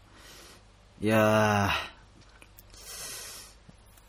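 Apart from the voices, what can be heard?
sniffling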